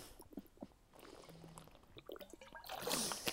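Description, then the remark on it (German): Wet slurping and gulping as someone takes a sip of water, with small liquid squishes and a swallow, fairly quiet and intimate, no talking. “Hört sich gut an, gell? So ein Wasserschluck.”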